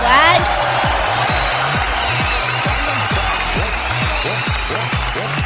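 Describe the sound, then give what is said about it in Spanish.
Dense, steady applause and crowd noise fills several seconds at a loud, even level, with a regular low thumping pulse running underneath. “Aplausos, aplausos, aplausos para”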